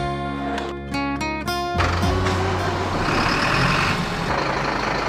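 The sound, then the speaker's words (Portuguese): A truck maneuvers, its reversing alarm beeping in a steady series before a loud diesel engine roar takes over and rumbles on. “Dirigem caminhões que levam até 6 toneladas.”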